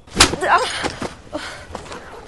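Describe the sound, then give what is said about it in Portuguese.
A single sharp, loud slap across the face, given by a dwarf to a man, cracks, followed by a brief muffled vocal reaction and faint rustling as the sound settles. “Tapa do anão no maluco.”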